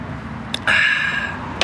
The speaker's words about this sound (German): Hey, wie man gehört, wir sind draußen. Ich habe keine Ahnung, ob das funktioniert. Wir sind jetzt hier im Garten, weil das Wetter zu schön ist. Wir haben ein Hintergrundgeräusche